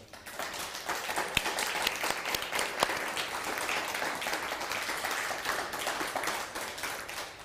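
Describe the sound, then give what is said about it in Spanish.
Sustained audience applause, a dense crackle of many hands clapping steadily for several seconds, with a few sharper individual claps standing out; no one speaks over it. “Ahora sí, un fuerte aplauso.”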